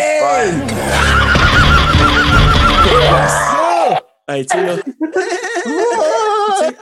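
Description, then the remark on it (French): A voice imitates Samara Weaving's goat-like scream with loud, quavering screams, a long wavering cry and then a second burst of bleating wails, with a few spoken words in between. “Elle se fait taper dans l'épaule, puis là, on revient à ce qu'on s'était dit au tout début, le cri de chèvre de Samara Weaving”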